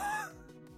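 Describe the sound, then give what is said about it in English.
A short yawn by a woman: a voiced moan that slides downward in pitch, then trails off into soft breathy exhales. No one talks over it. “That was a that was a yawn.”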